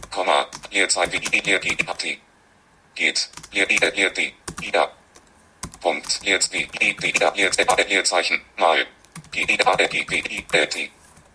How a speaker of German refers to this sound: Ich lösche das mit der Backspace-Taste und gebe meinen eigenen Text ein.